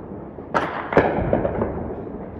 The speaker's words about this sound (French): Et vers 9 h elle a entendu des explosions comme celle-ci qu'elle a filmée. I started hearing explosions or like very loud banging uh, outside. J'ai commencé à entendre des explosions, des frappes qui résonnaient très fort.